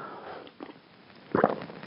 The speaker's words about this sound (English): Okay, here's the first coffee gulp.